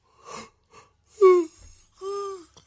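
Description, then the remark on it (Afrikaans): A person yawns after getting little sleep the night before: a few breathy intakes followed by two drawn-out, voiced groaning exhales, each rising and then sagging in pitch. “Ja, maar nou raai gaap. Ek het nie gisterand baie slaap gekry nie.”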